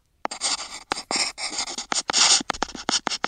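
A pen scratching quickly across paper in short, irregular bursts of dry, hissy strokes with brief pauses between them, fairly loud, with no voices.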